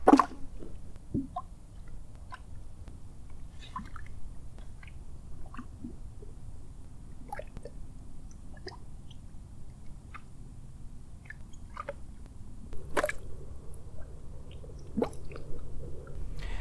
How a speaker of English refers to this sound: And when we were still in Azerbaijan, close to the Caspian Sea, we camped near Gobustan mud volcano. It was a small mud volcano, and this is how a mud volcano sounds like.